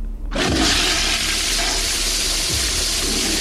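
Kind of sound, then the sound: household object, toilet flushing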